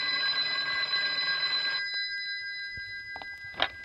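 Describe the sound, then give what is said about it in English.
An old-style telephone bell rings loudly and steadily for a couple of seconds, then cuts off, followed by a few sharp clicks and a clunk like a receiver being lifted. “Any minute now, Lieutenant Humphreys is going to call me up and prove me right.”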